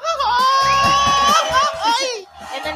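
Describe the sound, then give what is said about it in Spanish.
A loud group of voices lets out a sustained, high-pitched celebratory cheering shout to wish someone good luck, rising and wavering together for a couple of seconds before tapering off, energetic. “Así que le damos la patadita de la buena suerte, que le vaya excelente y con ese grito.”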